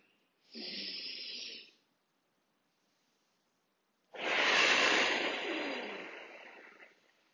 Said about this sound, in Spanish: Luego haremos una última respiración que es simplemente una respiración profunda donde al exhalar sacamos el aire del cuerpo por completo.